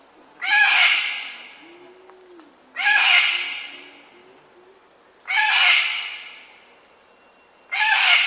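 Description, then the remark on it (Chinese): A sulphur-crested cockatoo screeches four times, each call a loud, harsh, raspy squawk lasting about a second, repeated at a steady pace with short quiet gaps between. “澳洲最普遍呢是 sulfur crested cockatoo，cockatoo 就是鹦鹉嘛。”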